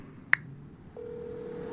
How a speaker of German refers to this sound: Ein Freizeichen ist zu hören, aber kein Name wird in seinem Display angezeigt.